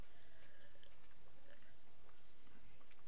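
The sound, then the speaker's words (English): Sipping from a drink, with soft wet mouth sounds and a few small clicks and swallows over about three seconds, with no one talking. “I gotta take a sip.”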